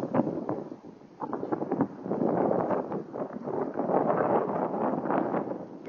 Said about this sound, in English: interesting is I hear I hear wind, and I see wind in the uh, level sounds. Uh, anyway, this is uh, coming to you live from outside of Studio D. This is what uh, the, the headset sound the AfterShokz in a windy environment sounds like.